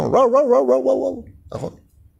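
A dog gives a drawn-out, wavering yowl lasting about a second, then a brief pause and one short, sharp bark, fairly loud.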